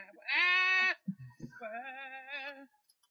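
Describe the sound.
A voice mimics whiny crying with two drawn-out, nasal wah sounds, loud; the first is strained and steady, the second longer and wavering, with a brief gulp between them.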